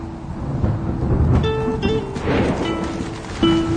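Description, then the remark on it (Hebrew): A loud, steady rumble of thunder from a strong lightning strike over the town of Safed, rolling on without pause, deep and broad, with a faint hum threaded through it and no voices. Heavy rain is falling, and the strike broke off a large branch. “מכת ברק חזקה ומרתיעה שברה ענף גדול שנפל בסבוק עיניי.”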